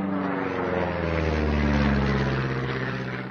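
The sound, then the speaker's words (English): A propeller aeroplane drones overhead, its steady engine hum with strong low harmonics swelling slightly and then easing as it passes, continuous and fairly loud with no voices. “It's like the biological, the abiotic, so the wind and the waves and the, you know, river, and then the aeroplane going overhead.”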